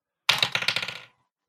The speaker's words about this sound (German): soll ich als erstes für Jens oder für Alex würfeln?